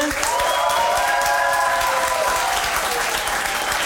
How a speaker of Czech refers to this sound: Já teda nechám rozhodnout publikum, ale myslete na to, že žaloba přešvihla mi dneska. No jasně. Takže kdo je pro žalobu, zatleskejte.